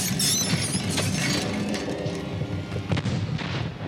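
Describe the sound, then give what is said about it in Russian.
A volley of cannon fire against fortress walls during a 15th-century English siege directed by the Earl of Warwick rumbles on, with heavy low booms and sharp cracks breaking through a loud, continuous roar, and no voices. “Как только огнестрельные орудия дали залп, стены дрогнули.”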